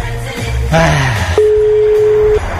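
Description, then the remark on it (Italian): A telephone ringback tone on an anonymous outgoing call: one steady, clear beep lasting about a second, heard through a phone line over faint background noise and muffled rustling. “Intanto vediamo se suona, che già non sarebbe male come situazione, no?”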